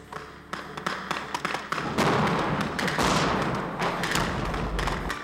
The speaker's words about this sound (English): During the exercise, the noise was deafening. These explosions give us the feel, the blast, the heat. We want to train the way it'll be if an event actually goes down.